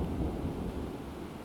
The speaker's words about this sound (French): Alors, question à ceux qui sont bons en sciences Est-ce que c'est dangereux d'avoir un micro dans les mains quand il y a de l'orage